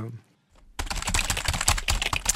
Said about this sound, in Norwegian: Hva er det du skriver ned? Bare at jeg må huske å høre på Umami på Radio Nova.